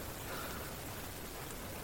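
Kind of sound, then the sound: nature, rain falling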